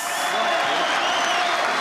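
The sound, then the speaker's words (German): Steady, dense applause for a prize-draw winner, a loud crackling wash of many hands clapping at once that holds its level for about two seconds without a break. “Das also ist, das mal Applaus.”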